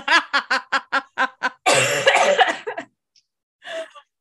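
A rapid string of short, choked coughs builds into a harsh, spluttering hack, then after a brief pause one last weaker cough. Close and fairly loud, with no talking.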